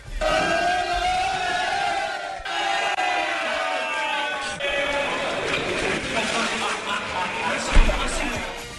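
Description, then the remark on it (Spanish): A group of players shout and cheer loudly and continuously, voices overlapping in an excited din, as their coach is thrown into a pool of ice-cold water during a celebration, with a sudden splash-like burst near the end. “Escuchemos un pedacito de cuando le tiran al agua al, técnico.”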